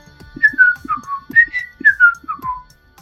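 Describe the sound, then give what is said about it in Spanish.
A boy whistles a short, lilting tune of falling, sliding notes in two repeated phrases as he walks away, clear, with no talking. “Tal vez, dijo él con petulancia y se alejó silbando con el libro viejo y polvoriento debajo del brazo.”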